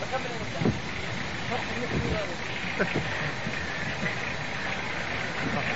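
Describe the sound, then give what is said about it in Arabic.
A car engine, left running, idles with a steady, continuous low rumble while people talk indistinctly over it and a breezy hiss runs underneath. “قلت السيارة قلت السيارة السيارة شغالة قلت له عشان يطفيها عشان المحرك إيه.”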